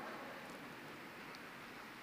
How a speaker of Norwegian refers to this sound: Hører dere selv om det regner